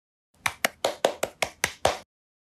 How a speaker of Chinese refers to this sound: 好，此处有掌声。为 孩子鼓掌，也为我们的问天实验舱鼓掌。